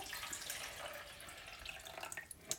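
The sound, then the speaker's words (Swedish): Water pours steadily into the reservoir of a simple, old-fashioned Melitta drip coffee maker, a continuous splashing trickle with a few sharper drips and splashes near the end, fairly quiet, with no one speaking. “Så, här har vi lilla kaffebryggaren. Det är en vanlig enkel nu. Eh, vanlig sån, Melitta. Gammeldags. Ingen lyxigare variant. Så häller jag i här.”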